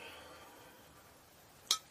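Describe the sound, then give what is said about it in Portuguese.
One short, bright clink of glass near the end of an otherwise quiet stretch, crisp, as a glass of water is picked up and knocks lightly against something. “Pegamos a nossa água”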